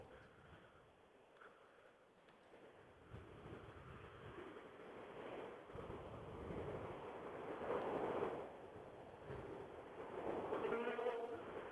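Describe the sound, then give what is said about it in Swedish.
A rally car engine screams through the forest, its buzzing whine swelling as it approaches and revs hard, over a steady wash of background noise. “Ja, nu ylar det ordentligt i skogen här.”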